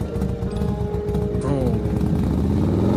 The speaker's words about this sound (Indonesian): setelah temen gue itu pergi nyalain motor